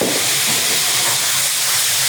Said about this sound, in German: Das, was jetzt im Hintergrund so zischt, ist der Tofu.